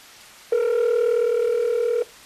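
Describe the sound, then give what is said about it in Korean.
A phone line's ringback tone sounds once, a steady electronic hum lasting about a second and a half, clear with nothing else around it; the call goes unanswered. “아 전화는 왜 이렇게 안 받는 건데?”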